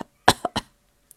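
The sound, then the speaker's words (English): A person imitates the cough of someone with a bad cold: three quick, harsh bursts in close succession, fairly loud, with no talking around them and near-silence afterward. “However, Tom thought he knew best, so he went outside with no coat, and he caught a bad cold and coughed.”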